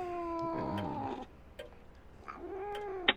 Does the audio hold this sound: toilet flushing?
no